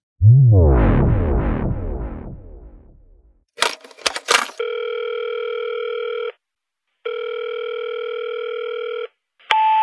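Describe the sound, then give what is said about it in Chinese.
A descending swooping tone and a brief burst of crackling clicks give way to a steady telephone tone, sounding in long, even bursts separated by short pauses, as a phone call is placed from a small island in Wanning, Hainan, China. No one speaks. “我现在在海南万宁的一个小岛上给你打的这个电话。”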